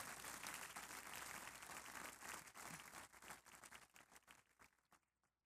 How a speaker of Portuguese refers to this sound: Uma salva de palmas para o crápula e para o parente.